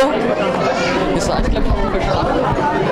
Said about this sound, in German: Hast du es gehört? Das heißt, habt ihr verstanden? Hier ist eine unglaublich tolle Stimmung, eine Hysterie wie beim Rockkonzert.